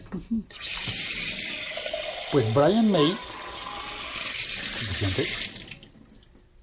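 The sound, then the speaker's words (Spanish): Tap water runs steadily in a broad hiss for several seconds, fairly loud, as water is poured to make coffee at home in Colombia, while a person talks briefly over it before the flow trails off. “Creo que puse mucha agua.”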